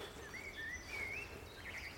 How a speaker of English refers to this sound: And that gorgeous lazy warble is the blackbird. Thank goodness it's common.